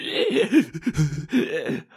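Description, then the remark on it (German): A voice imitates a creature's gasping, a strained, wheezy series of breathy groans rising and falling over about two seconds, moderately loud with no words spoken. “dieses Ding keucht auf”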